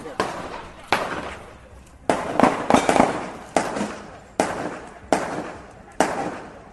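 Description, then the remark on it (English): A rapid string of about ten sharp gunshots crack out at uneven intervals, some clustered close together, fairly loud and echoing slightly, with faint voices in the background. “just got to be careful here with some gunshots.”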